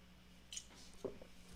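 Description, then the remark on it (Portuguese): A quiet sip of water: a few small wet mouth clicks and a soft slurp, then a gulp, with no talking. “Vamos lá, um golinho de água e voltamos a falar para todos os signos.”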